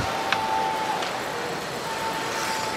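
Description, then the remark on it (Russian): A referee's whistle at an ice hockey game between Russia and Italy sounds as a thin, steady tone over a constant wash of crowd noise, holding for about a second, dropping out, then sounding again until the end, stopping an attack. “Свисток останавливает э, эту атаку.”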